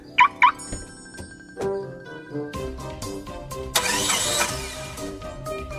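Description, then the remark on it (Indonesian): Two quick electronic chirps, then a thud, and a car engine cranks and turns over into a steady idle with a brief surge of revving, fairly loud. “Mah, pinjem mobil ya.”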